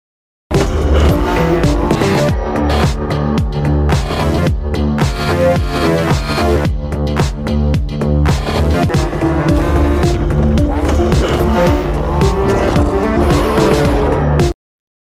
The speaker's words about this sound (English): Guys, listen, in that video, you saw someone shifting gears. They were going fast, they were doing curves, they were doing spins, but everything required them to shift gear.